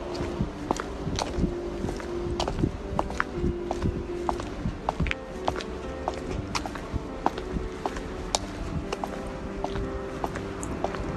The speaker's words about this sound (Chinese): 我想，除我嗓子发出的声音以外，我的脚步声代表了另一些我。因为想要录下它，我从家走出去。